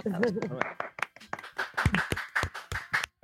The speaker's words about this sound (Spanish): Aquí, aquí, los aplausos.